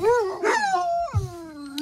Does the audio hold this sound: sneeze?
no